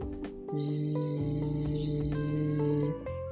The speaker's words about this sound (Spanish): ¿Qué es eso? ¿Qué velocidad? ¿Qué precisión? eran las abejas trabajando.